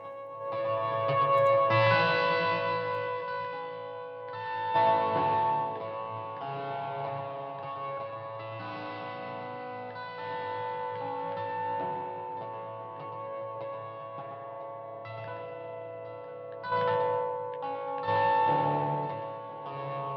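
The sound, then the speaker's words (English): Instrumental theme music plays steadily for about twenty seconds, with layered sustained tones and a few swelling accents, at an even, moderate loudness. No voices are heard. “The theme music for this episode, and for all my episodes, is composed and performed by Dan Lurch.”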